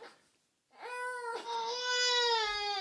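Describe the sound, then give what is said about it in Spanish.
A baby who has just woken up cries out in long, wailing bursts, high-pitched and harmonic, starting after a brief silence and rising steadily louder, with a short break between the two drawn-out cries. “No que está pequeño despierta un poquito.”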